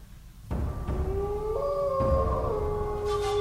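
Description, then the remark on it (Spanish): A long, drawn-out wolf howl rises and holds steady, with overlapping tones suggesting more than one voice, set against a rumbling, breathy background. There is no talking. “Julio habló de una loba que ronda la cabaña abandonada”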